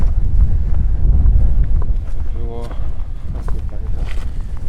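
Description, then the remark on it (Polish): Wind gusts buffet the microphone outdoors on a sunny September day in a loud, steady low roar that eases slightly midway, while a voice briefly sounds through the rumble. “O, wiatr słychać.”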